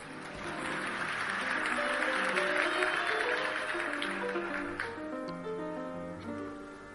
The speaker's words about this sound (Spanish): mira cómo le aplauden, nada más empezar.